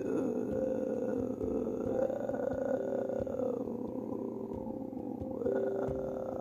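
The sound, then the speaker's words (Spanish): A voice makes a steady, unbroken rumbling drone imitating white noise, held at an even level for several seconds, with no other sounds around it. “Eh, ruido blanco en lo que me acuerdo de que iba a decir.”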